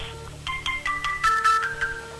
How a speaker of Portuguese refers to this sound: tem um telefone fazendo barulho aqui.